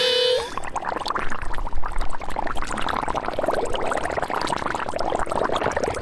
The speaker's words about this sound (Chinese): 我来给大家一个提示吧。平常啊，妈妈在厨房煮料理的时候，都会听到这个声音哦。你们知道是煮什么的声音吗？ 煮水。 煮水吗？嗯。哦，那我们跟大家说是什么声音？哦，我们答案是煮汤或是煮水的沸腾声哦。